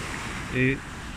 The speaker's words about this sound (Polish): Ja jak słyszycie w tle na szczęście idę yy, plażą, gdzie wciąż ludzie są.